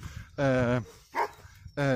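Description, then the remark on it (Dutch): A dog walker from a dog-walking service, outdoors, calls out to a dog in loud, drawn-out shouts, two long calls with a short sharp burst between them. “ik hoor een hondje blaffen uh, en uh, hondenuitlaatservice staat aan de bovenkant eh, momenteel eh, een hond te roepen.”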